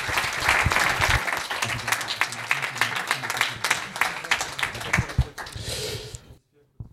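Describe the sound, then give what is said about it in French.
An audience bursts into dense, sustained applause for the illustrators, many hands clapping at once, loud, with a few voices mixed in before it cuts off abruptly near the end. “et remercions encore une fois et applaudissons les illustrateurs.”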